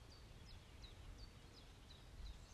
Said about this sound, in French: Écoutez les bruits, cet enregistrement est fait à l'extérieur, donc il y a des bruits, il y a le chant des oiseaux, le chant de la nature, parfois le chant du vent qui viennent se mêler à ma voix.